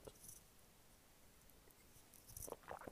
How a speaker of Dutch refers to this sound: Sorry, eventjes een slokje water nemen voordat ik uh, half uh, stik.